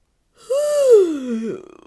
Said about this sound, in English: So let's start with a good yawn stretch. maybe roll your shoulders a bit.